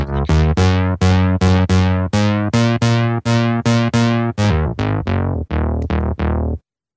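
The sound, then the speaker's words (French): A synthesized bass line played on a phone app, a steady run of about eighteen punchy, buzzy notes in a bouncing rhythm, loud, with no voices, stopping abruptly near the end. “Et après, donc, t'as plusieurs euh, façons de faire de la basse.”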